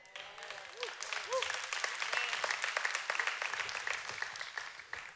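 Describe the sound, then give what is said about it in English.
An audience at Vibrant church claps steadily for several seconds, a dense, sustained patter of many hands at moderate loudness, with a brief voice rising over it near the start. “And when you come to Vibrant, I don't know if you've ever noticed, but sometimes we clap.”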